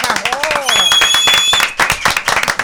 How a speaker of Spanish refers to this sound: a quien damos la bienvenida y vamos a darle un aplauso